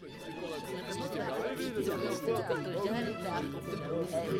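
Several voices talk over one another in a steady, lively murmur, the members of a family at a dinner in a manor in the Glasgow area of Scotland in 1869, with no single speaker standing out.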